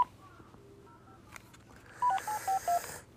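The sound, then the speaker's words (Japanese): A string of short electronic keypad beeps as a phone number is dialed to book vaccination appointments, faint tones at first and then four or five louder, evenly spaced presses. “今日からですねえー、今日からというか今日あの私の年老いた父親と母親のワクチン接種の予約申し込みが始まったんですけど電話がつながりません”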